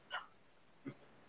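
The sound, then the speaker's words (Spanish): A quick, stifled sneeze bursts out softly, followed a moment later by a brief, lower breathy sound, then quiet. No talking. “Es un camino. Salud.”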